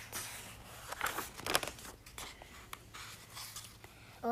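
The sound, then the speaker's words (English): Scratching of a pencil or marker across paper as paper cats are drawn and cut out, mixed with crinkling and rustling handling sounds and a few sharper snips, quiet and steady with no one speaking. “So Pete draws, Callie cuts them out.”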